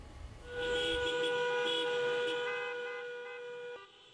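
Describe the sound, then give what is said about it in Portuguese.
A car horn blares in one long, steady, loud blast after a brief rumble of traffic, then cuts off abruptly near the end. It is from a protest car convoy of workers and business owners against the quarantine in São José do Rio Preto, São Paulo state, Brazil. No one speaks. “A movimentação de carros quebrou o silêncio provocado pela quarentena decretada pelos governos estadual e municipal.”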